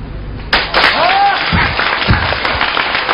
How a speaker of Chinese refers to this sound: 朋友们，如果看我整的还行，给我点掌声，鼓励一下我的情绪。演员的情绪完全是朋友们掌声培养出来的。